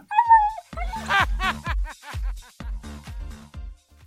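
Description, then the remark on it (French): A large police dog barks aggressively, a rapid string of about eight loud barks after a brief high whine at the start, with no one talking. “Au même moment, un flic menace de lâcher son kleps.”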